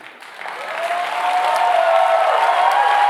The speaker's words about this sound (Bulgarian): Ръкопляскаш като някой, който е в застой.